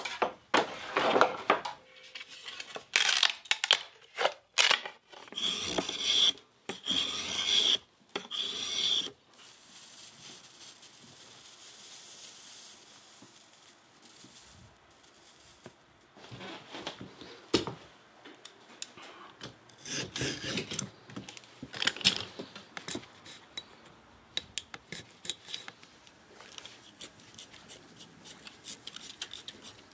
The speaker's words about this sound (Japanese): 今朝は伝統工芸品駿河竹千筋細工のいい音それではお聞きください。